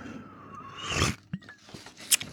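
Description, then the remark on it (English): A quiet sip from a drink: a short slurping rush of air and liquid, then a few small mouth clicks and a brief breathy hiss. No one speaks. “sorry, I got to keep sipping on something, or the itch in the back of my throat from the allergy just gets unbearable.”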